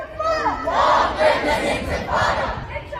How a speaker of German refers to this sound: Lang lebe die Intifada. Sprechchöre wie dieser waren tagelang auf dem Campus der University of Pennsylvania zu hören und nicht nur dort.